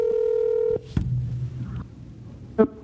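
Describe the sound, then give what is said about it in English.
A steady electronic tone holds for under a second, then cuts off into a soft click and low hum, with a brief bright beep near the end, as a phone call is placed to bring a guest onto a show. “Calling. There we go.”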